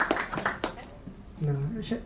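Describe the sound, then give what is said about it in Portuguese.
A short burst of audience clapping welcoming a professional hugger invited to the front, a handful of sharp, uneven claps in the first second, fading out as a voice starts talking. “Eu queria uma salva de palmas para ela.”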